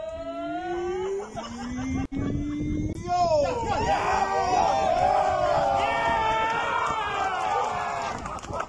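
A crossgolf community at a celebration, in a video, lets out its final loud, sustained cheering scream, many high voices overlapping in shrill, wavering whoops and yells that swell and hold for several seconds, with no speech over it.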